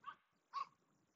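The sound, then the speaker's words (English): Two sharp barks about half a second apart from a dog passing by, bright, with quiet background between them and no one speaking. “I don't know if you guys can hear that dog barking, but it's about to pass me.”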